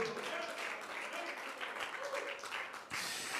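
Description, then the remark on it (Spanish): An audience at a religious service applauding in a dense, steady wash of clapping with mingled voices and cheers, sustained throughout with a brief dip near the end before resuming. “Oh, alguien que lo conozca puede abrir sus labios y darle una alabanza, un aplauso, una voz de gratitud.”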